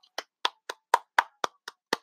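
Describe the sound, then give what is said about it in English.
Hands clapping eight times in a steady, even rhythm, each clap a sharp, bright burst with a quick decay. No voices accompany the claps. “I applaud y'all.”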